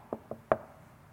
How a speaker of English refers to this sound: Your wife to be rocks up at the door. You get a knock.